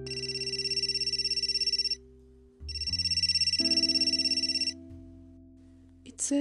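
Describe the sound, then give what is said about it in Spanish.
A mobile phone ringtone chimes loudly in two bursts with a short gap between them, a bright electronic melody over steady low tones, ending in a brief pause before a faint rustle. “contestó su celular.”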